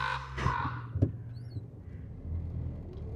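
A raven gives two harsh, rasping caws in quick succession over a steady low rumble of traffic, followed by a faint higher bird call.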